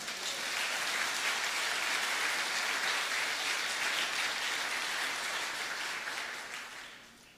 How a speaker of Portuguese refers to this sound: Dá para aplaudir ao Senhor?